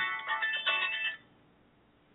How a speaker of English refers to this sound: Sorry, I forgot to turn my phone off.